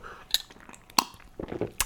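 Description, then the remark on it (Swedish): Someone drinks tea from a cup: a few sharp ceramic clinks as the cup is handled, with a soft sip or slurp between them and no talking. “Ah, lite te.”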